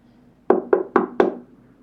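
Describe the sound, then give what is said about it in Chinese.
Four firm knocks on a house door as Little Bear arrives bringing soup, in a steady, quick rhythm, each a sharp wooden rap with a short ringing decay, with no voices present. “哦，我来，我来开门，等等。”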